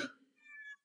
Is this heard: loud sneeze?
no